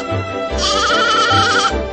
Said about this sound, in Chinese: 小绵羊叫着，它呀，好像也在笑呢。